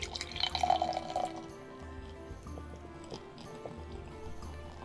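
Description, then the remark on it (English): Thick, dark stout beer pours slowly and glugs into a glass, loudest and most bubbly in the first second, then settling into a quieter, steady trickle with soft dripping. “yeah, I gotta pour really slowly to keep this in there because it's thick.”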